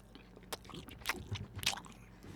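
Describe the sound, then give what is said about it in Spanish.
Wet chewing of ham with soft smacking and squishy mouth noises, several irregular bites and crunches over a couple of seconds, no talking. “Yo estoy muy liado. Con el jamón, joder. Mira, vamos a hacer un en a ver que se note el moflete como.”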